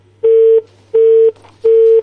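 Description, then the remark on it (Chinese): Three loud, steady beeps of a telephone line tone repeat at an even, quick rhythm, each a flat mid-pitched buzz with short gaps, the busy signal of a dropped call over a faint low hum. “电话不给力，电话半拉就断。”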